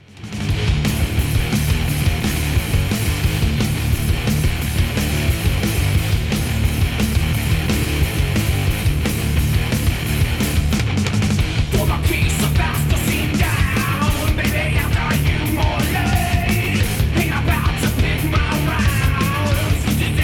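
A loud, dense rock song plays continuously for the whole stretch, with heavy distorted guitars, a thick low end and steady pounding drums, and a wailing lead line entering partway through.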